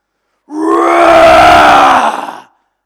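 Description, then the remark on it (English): A crowd of people roars together in imitation of a lion, a loud, sustained group growl lasting about two seconds before trailing off. “But he's coming back as a lion. Who's ever seen a lion before? King of the jungle? How does a lion sound?”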